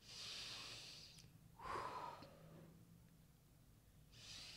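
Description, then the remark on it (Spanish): Several long, deep exhalations rush out in breathy, hissing waves, with a fuller burst of air midway. A group breathes out together during a deep-breathing relaxation exercise. Moderately quiet, with no talking. “Exhala.”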